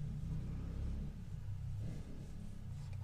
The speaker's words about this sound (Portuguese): Passa, moto, passa.